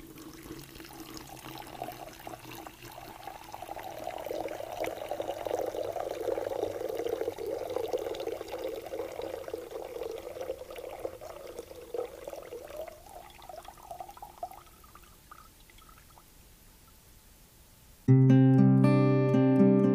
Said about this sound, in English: So I want you to listen to the water for just a second as we pour into the font.